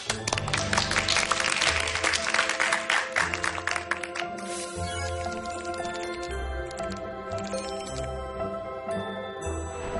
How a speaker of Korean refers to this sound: 박수로 본격적인 강연 부탁드리겠습니다.